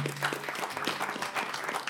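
Steady audience applause welcoming a guest aphorism writer on the show Infames Perfiles, a dense crackle of many hands clapping at a moderate level throughout, with no voices standing out above it.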